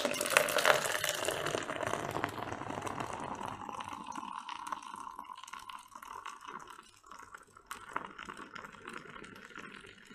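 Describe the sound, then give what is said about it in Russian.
Beer pours steadily into a glass with a head of foam, a bright fizzing gush at first that settles into a softer, continuous trickle and hiss, moderately loud, with no voices. “Теперь э, по заветам ТикТока и друже я а, тоже наливаю пиво с пенкой, чтобы э, пенка отстоялась и как бы газы из напитка ушли, чтобы лишним образом не рыгать а, и не наполнять свой э, желудок газами.”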